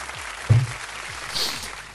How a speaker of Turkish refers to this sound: Alkış tuşuna basacağım bakayım doğru. Evet, doğru.